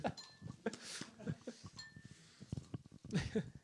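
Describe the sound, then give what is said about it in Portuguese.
Ice cubes clink and rattle into glasses in several bright, scattered bursts, with a short glassy ring after some hits, fairly quiet, with faint voices in the background. “Bom, eh, eu ouço neste momento o som de pedras de gelo.”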